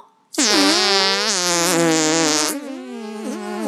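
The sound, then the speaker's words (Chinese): A long, loud, buzzy fart stretches for about three seconds, its low pitch wobbling and sputtering, then shifting to a slightly softer, rougher tone toward the end. No one speaks. “大象要放屁，老鼠也要放屁，有肠和肛门的动物都要放屁。”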